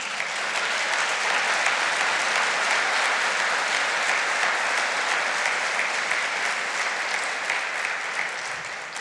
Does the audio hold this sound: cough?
no